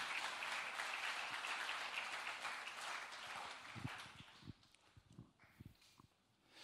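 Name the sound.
audience applause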